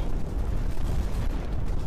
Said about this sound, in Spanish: Hay continuos cañonazos por todos lados.